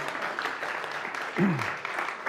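Steady audience applause, a dense, even patter of many hands clapping throughout, with a single brief, low, falling vocal tone breaking through partway.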